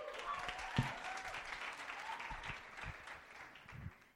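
An audience applauds steadily for several seconds to welcome the first of five speakers, a dense, even wash of clapping with a few sharper claps standing out, tapering slightly toward the end.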